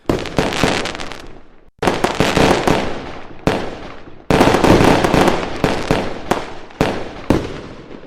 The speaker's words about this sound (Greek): Είμαι εντυπωσιασμένο. Είμαι πραγματικά εντυπωσιασμένο ε, από το γεγονό τούτο με τα πυροτεχνήματα και ε, μεταξύ σοβαρού και αστείου.